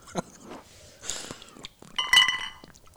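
Glasses clink together in a toast: a few soft taps, then one bright, ringing chime that lingers briefly. There is no talking.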